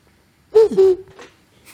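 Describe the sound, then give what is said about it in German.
A person imitates an eagle-owl's hoot with a couple of short, low, hollow calls, followed by a faint breathy tail. “Ich kann, ich kann Uhu nachmachen.”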